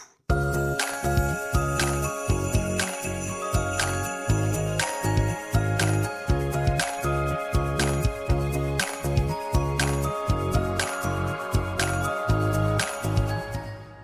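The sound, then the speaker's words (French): A cheerful, bouncy, kitschy algorithmically generated tune driven by bright jingling sleigh bells that shake steadily on the beat over a pulsing bass line, continuous and fairly loud with no voices. “Autre tonalité, autre rythmique, mais toujours aussi kitsch. Le seul point commun semble être ce signifiant grelot.”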